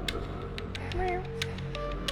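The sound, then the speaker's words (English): A person imitates a cat with a single short, rising-and-falling meow, set against steady background hum and a few sharp clicks. “Meow.”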